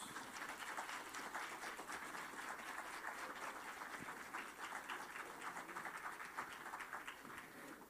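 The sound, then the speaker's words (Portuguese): An audience bursts into sustained applause as deacons are honored, dense overlapping claps holding steady and fairly loud for several seconds with no voices clearly standing out. “Vamos aplaudir, irmãos.”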